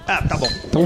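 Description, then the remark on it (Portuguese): Beer glasses holding Dádiva Dunkel beer (5.2% alcohol) clink together in a toast, a quick bright chime with a short high ring, heard under people talking. “A gente não pode brindar antes?”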